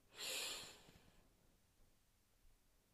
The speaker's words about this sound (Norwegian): Ok, da starter vi med å puste godt inn, og helst godt inn gjennom nesa. Og hold pusten. Og pust ut. Og pust godt inn igjen.